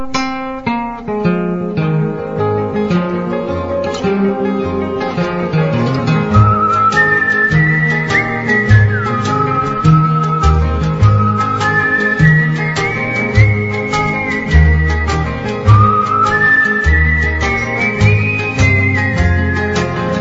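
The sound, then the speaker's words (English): A clear, bright whistled melody glides over a steady strummed folk accompaniment with bass, entering a few seconds in and carrying the tune at a moderate tempo, with no talking. “It was another one of their songs with a little whistling.”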